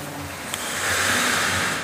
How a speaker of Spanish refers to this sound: y como cuando va en una cascada y queda caer el agua de alto, suena como